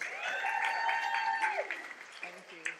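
A round of applause at the end of a question session, a steady patter of clapping lasting a few seconds, overlaid by sustained tonal humming that glides downward midway before the clapping thins out.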